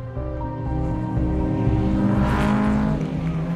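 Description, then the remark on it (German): The engine of an Audi Sport Quattro S1 rally car of about 600 horsepower roars, its dense harmonic growl holding steady and swelling slightly in pitch as it is pushed hard, loud and continuous with no voices. “Highway, der damals noch durchgehend unbefestigt war, benötigte er in einem ca. 600 PS starken Audi Sport Quattro S1 10 Minuten und 47,85 Sekunden.”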